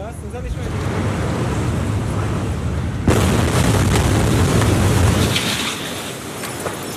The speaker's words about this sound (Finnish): Kuvauksen keskeyttää massiivinen räjähdys. Läheisten rakennusten ikkunat sinkoavat kaduille, seuraa kova paineaalto.